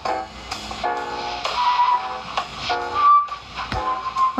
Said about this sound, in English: my god, he can't even whistle. Oh, this guy.